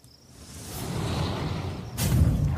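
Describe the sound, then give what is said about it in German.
A rushing whoosh of air builds steadily from near silence, growing louder and denser before surging into a stronger roar near the end, as an object streaks across the sky overhead. No voices. “zieht so dieses, dieses, dieses Objekt am Himmel so über euch.”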